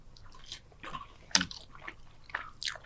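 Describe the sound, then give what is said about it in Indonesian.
Wet, crunchy chewing of honey mustard fried chicken, a series of irregular bites and mouth sounds with one sharper crunch in the middle, no talking. “Ini ayam apa honey cheese? Uh, mustard, honey mustard.”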